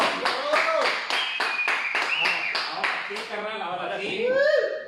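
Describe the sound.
Steady, rhythmic applause of about a dozen sharp claps from a small group welcoming a guest, with people talking and chuckling over it; the clapping stops partway through while the voices continue.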